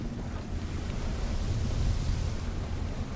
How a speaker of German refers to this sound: dann eben auch reflektiert wird von von dem Ozean selbst, äh, gewaltige Wellen und der Sturm, der dann von unten gegenbrandet und, und gegenstürmt, sodass euch dann der Regen äh, in die Visiere peitscht.